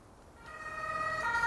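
A police siren swells in quickly and grows loud, its bright tonal wail stepping to a new pitch near the end, with no voices present.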